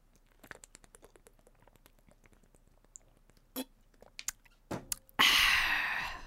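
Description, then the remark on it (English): Drinking water from a bottle: small clicks and handling noises, a couple of sharp plastic crackles, then a loud, breathy burst of noise that fades out. No one speaks. “All right, time for a good old drink break.”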